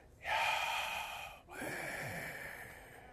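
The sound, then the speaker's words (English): Two long, breathy whispered exhales voicing the Hebrew name of God, Yahweh, without vowels and without moving the lips, fairly loud: the first rushing and steady, the second following after a brief pause and trailing off more softly. “If you say it without any vowels, and you're not allowed to say it moving your lips, it comes out the breath.”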